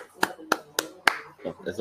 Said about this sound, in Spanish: Bro, oye un aplauso.